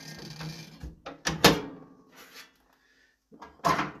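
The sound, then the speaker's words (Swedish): A metal wood stove door swings shut with a few sharp clanks and rattles, a thin creaking squeak from its spring in between, then a final solid clunk. Fairly loud, no voices. The stove is burning birch logs. “knarrar det i fjädringen här på min kamin.”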